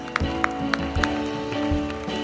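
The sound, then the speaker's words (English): An audience claps hands for the Lord in a steady rhythm, sharp beats roughly every quarter second, over sustained organ-like music that fills the background. “Give the Lord a hand clap.”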